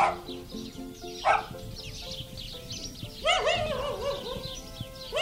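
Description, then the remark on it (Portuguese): Restless dogs bark repeatedly in the empty, narrow stone streets of a small village in the Serra do Sicó in early afternoon, a few sharp yelps and a longer burst of barking, while sparrows chirp and twitter steadily in the background of a quiet outdoor setting. “Ao início da tarde, as estreitas ruas em pedra desta pequena aldeia da Serra do Sicó caminham vazias e sozinhas, sem vivalma por perto, não fossem os cães inquietos e os pardais, o silêncio era quase absoluto.”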